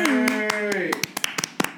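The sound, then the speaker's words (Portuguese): Hand clapping, about a dozen sharp claps, steady at first and then quicker and more ragged, with a held, wavering vocal tone under the first half. “Palmas.”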